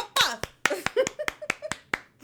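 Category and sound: human body sound, hand clapping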